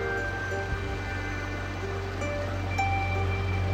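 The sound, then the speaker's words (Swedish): Soft, steady washing of water outdoors in nature, a continuous gentle lapping with a low rumble underneath and no voices, while a slow, cool wind blows. “Jag lyssnar på vattnet här bakom och känner vinden sakta.”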